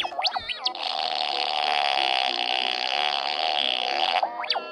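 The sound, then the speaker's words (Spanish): A sustained buzzy, electronic-sounding fart effect lasts about four seconds at steady loudness, bracketed by quick warbling synthetic chirps at the start and end, with no talking. “los pedos de pedo robot.”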